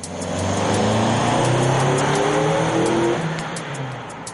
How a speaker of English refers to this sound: Michael Sussman gave us this video of a test conducted by Westchester County Police. In it, DJ's car is shown accelerating to where Aaron Hess was standing.